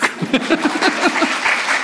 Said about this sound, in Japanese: 私振り向いた時にね二人の人が見えるんです一人は妻です拍手してください